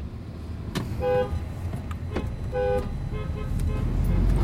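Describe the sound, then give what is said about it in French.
Car horns honk in short repeated toots over a steady low rumble of idling traffic, with several blasts overlapping, like a congested street full of impatient drivers. “Ah, là, c'est les blocages”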